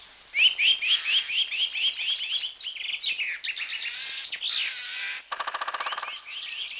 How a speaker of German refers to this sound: Der Winter ist vorbei. Der Wald erwacht und die Vögel beginnen ihre Frühlingslieder.